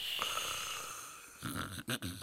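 Low, rough snoring breaths rumble, a steady rasping inhale followed by a couple of short, louder snorting bursts near the end, with a faint hiss underneath.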